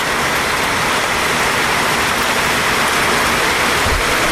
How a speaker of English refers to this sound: And it's windy and there's a lot of rain, but so far not bad.